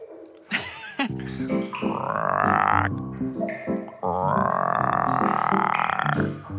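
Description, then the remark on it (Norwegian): Two long, loud, deliberate burps, each a drawn-out croaking rumble, separated by a brief pause, with no talking alongside; made by pumping air into the mouth. “Da fyker magen ut, og denne lyden kommer som en tut.”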